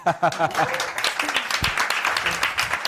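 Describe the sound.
An audience applauds the team member who fixed the microphones, a steady burst of many hands clapping in a dense crackling wash, with a voice talking over the start and cheerful voices mixed in.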